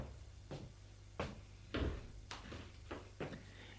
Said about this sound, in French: Il a sonné à la porte. La porte s'est ouverte, c'est son père.